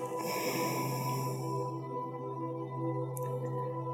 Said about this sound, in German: Und wir öffnen rechts und atmen rechts vollständig aus.